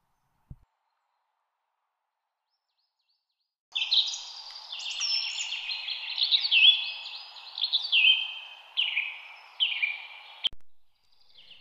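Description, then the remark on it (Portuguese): After a few seconds of silence, a bird sings a continuous, warbling song of rapid chirps and trills for about seven seconds, clear, then stops abruptly. “pela primeira vez em muito tempo, abriu o bico e começou a cantar.”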